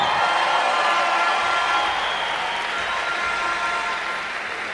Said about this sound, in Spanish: Un aplauso fuerte para él.